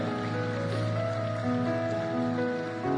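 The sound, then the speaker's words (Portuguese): An audience applauds God during a sermon in a steady, dense wash of clapping that stays loud for the full three seconds, with sustained keyboard chords held underneath and no talking. “Você pode aplaudir esse Deus, amém?”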